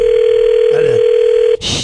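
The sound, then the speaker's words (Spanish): A steady, continuous phone tone hums for about a second and a half while a call to a young woman is dialed, then cuts off abruptly into a short rush of noise as the line picks up. “Vamos a marcarle esta chava.”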